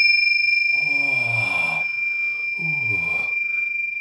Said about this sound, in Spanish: qué bonitas campanas. ¿Cómo se les llama Ese, ese sonido te... cimbales tibetanos. Cimbales tibetanos.